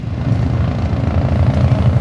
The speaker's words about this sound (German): Jetzt hebt der Helikopter ab.